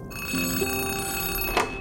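telephone ringing

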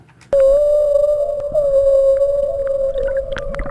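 humpback whale song

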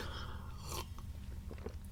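sipping coffee

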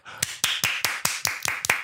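two people clapping hands

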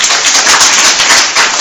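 audience applause

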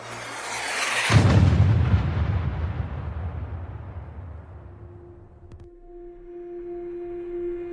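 cannon shot

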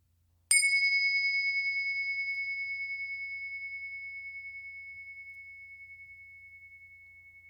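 meditation bell ringing

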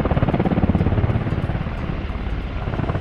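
helicopter sound effect

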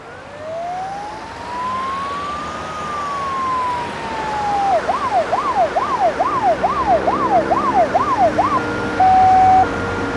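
ambulance siren

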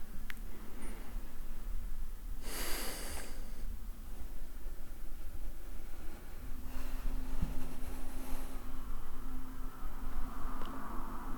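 deep breaths

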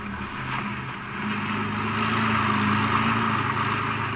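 car driving

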